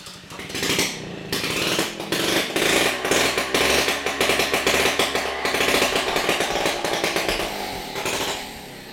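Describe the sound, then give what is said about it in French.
A small two-stroke engine of a vintage mobilette moped buzzes loudly and raspily without an exhaust pipe during a test run and tune-up on Belle-Île-en-Mer in the Gulf of Morbihan. Its harsh sputtering rhythm holds steady for several seconds before tapering off near the end. “En plein essai de, mobilette là. Une mise au point là, sans pot d'échappement, mais on, teste ah.”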